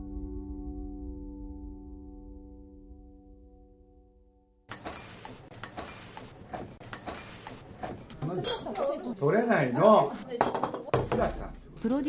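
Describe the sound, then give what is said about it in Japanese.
Dishes and cutlery clink and clatter in short, bright bursts during snack time, picked up by a digital recorder taped under the table, mixed with overlapping chatter from several people; a low steady hum fills the first few seconds before the clatter begins. “おやつの時間にテーブルの下にデジタルレコーダーを貼り付けさせていただきました。”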